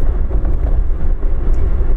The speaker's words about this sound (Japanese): はい今日はお仕事です今から、えー、今ね車に乗ってまして、えー、職場にね向かっているところです